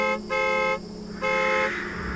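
A car horn honks three times, one short toot followed by two longer blasts with a brief pause between them, loud and clear with no talking.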